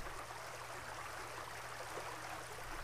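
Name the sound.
river water flowing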